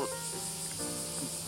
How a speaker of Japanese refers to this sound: セミの音がいいですね。やっぱりね。